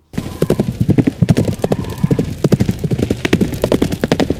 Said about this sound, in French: Je revois encore la photo en haut à gauche il y a une horde de cow-boys sur des chevaux au galop.